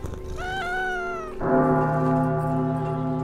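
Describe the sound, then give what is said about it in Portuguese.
A cat lets out one drawn-out meow, clear, and then a bell rings with a steady tone that takes over and sustains to the end. Nobody speaks. “Eu posso levar o gato no colo?”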